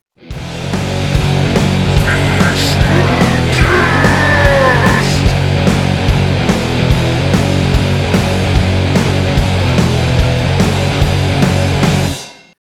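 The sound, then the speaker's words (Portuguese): A loud, busy music jingle with a steady pounding beat, and a voice briefly shouting over it near the start before the music carries on to an abrupt stop. “é isso que, é isso que grita na vinheta?”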